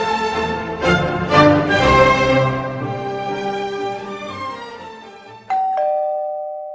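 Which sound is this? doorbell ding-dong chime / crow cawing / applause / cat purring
doorbell ding-dong chime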